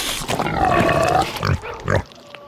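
A pig grunts, a long rough snuffling grunt followed by two shorter ones, loud and unaccompanied, ending in quiet.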